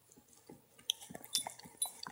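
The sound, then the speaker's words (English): A dog named Delphi licks a microphone: wet, smacking licks in a quick irregular series of slurpy clicks and mouth sounds with sharp bright transients, moderately loud with no talking. “Delphi's coming in to give me some licks on Mike.”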